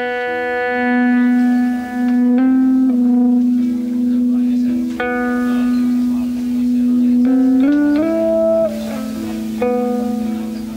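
Electric guitar held in controlled feedback gives a sitar-like, buzzing drone, with long sustained notes that swell and bend up to new pitches. It stays loud and continuous, and no one speaks.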